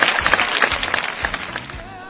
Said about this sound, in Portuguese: Palmas para o programa, palmas para a expressão.